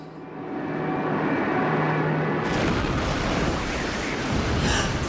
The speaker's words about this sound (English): The plane crashed!